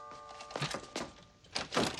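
A front door is opened close by: a steady tone fades, then a latch clicks, a solid thunk follows, and two rough, swishing bursts of the door swinging.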